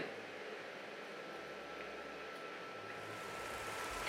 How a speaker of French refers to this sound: Bon, je ne sais pas si vous arrivez à m'entendre, mais c'est bel et bien sous de grands applaudissements que le pape quitte le cœur de Notre-Dame pour rejoindre la sacristie.